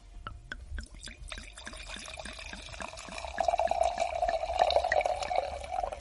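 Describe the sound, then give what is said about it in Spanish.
Pinot Noir red wine pours into a glass with a rapid series of glugging, bubbling splashes that rise in pitch and grow fuller as the glass fills. Nobody speaks. “Quizá la Pinot Noir tenga algún otro sonido que no tengan otras variedades.”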